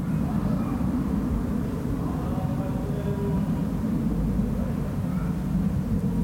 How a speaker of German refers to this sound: Und dann natürlich Flugzeuge. Unvermeidlich. Ich höre es